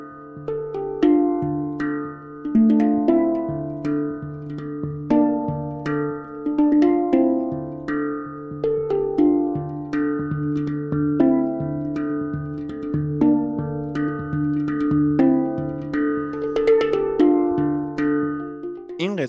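Hang drum and tongue drum music plays alone: struck, bell-like metallic notes ring out and overlap in a steady, flowing melody, mostly in a warm mid-to-low register at an even, moderate loudness.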